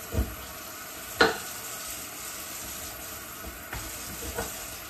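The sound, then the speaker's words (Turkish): Steady sizzling of food frying in hot oil, a constant crackling hiss broken by a few sharp knocks and clatters of a utensil against the pan. “Kızartacağım. Şu kalsın. Böyle yağda güzelce.”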